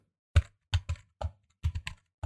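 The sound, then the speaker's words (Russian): Someone types on a demonstration computer keyboard: about eight crisp, fairly quiet key clicks in short irregular bursts, with no talking. “Это просто клавиатура из э, ну, демонстрационного ну, фонда.”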